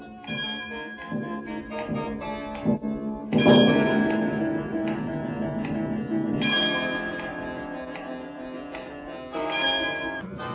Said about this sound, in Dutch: Als de klok 13 slaat.